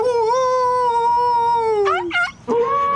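A dog's loud howl holds one steady tone for nearly two seconds, then breaks into a couple of short, wavering rising-and-falling cries before resuming briefly.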